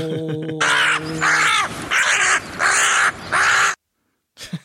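A run of about five loud, harsh crow caws in quick succession, raspy, following a brief musical tone at the start, then silence.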